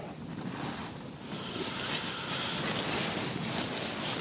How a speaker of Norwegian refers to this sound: Den blåser opp litt her.